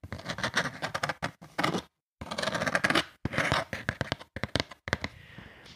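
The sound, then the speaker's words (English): Handling of a cardboard box as it is turned over and over: dense bursts of scraping and rubbing broken by sharp taps and knocks, with a brief pause midway, no voices present. “this is just the sound of me handling the box, just turning it over and over.”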